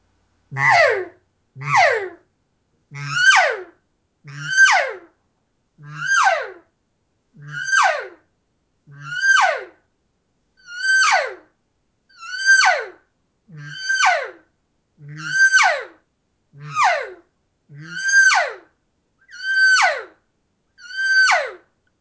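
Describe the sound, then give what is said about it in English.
A person imitates a cow elk call by voice to get a reaction from bull elk, repeating it over and over. There are about fourteen loud, evenly spaced calls, each starting with a deep, low guttural grunt and breaking into a high, squealing tone that slides downward. “that is what really, really gets a reaction out of the bulls going, not only doing that kind of deep, guttural, growly sound in cow call, and then pushing it into just a high pitch, three dimensional sound.”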